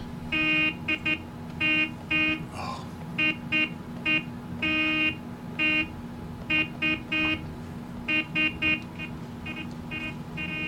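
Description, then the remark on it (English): A loud, blaring truck horn honks Morse code in an irregular pattern of short and long blasts, repeating for about ten seconds over a low engine rumble. “How did these alien trucks learn Morse code?”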